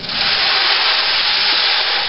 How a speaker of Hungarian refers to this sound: Ez például, gondolom a kedves hallgató is fölismeri, akkor rádió is rá legyen, akkor ez az esőgép